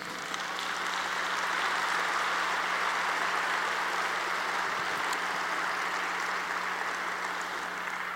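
An audience at a church service applauds for Jesus steadily for several seconds. It is a dense, even wash of many hands clapping at once that fills the space without a break, with no voices rising above it.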